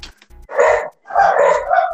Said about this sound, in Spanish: Perdón, esos creo que son mis perritos.